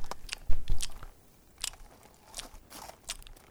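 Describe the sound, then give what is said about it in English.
A voice mimics chewing and spitting out a piece of chewing tobacco with crunchy mouth noises: several irregular wet bursts over a few seconds, louder near the start, with no talking. “Spits out another piece of chewing tobacco.”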